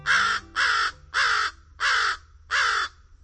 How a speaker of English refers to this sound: The harsh caws of American crows are one of the most familiar bird calls in North America.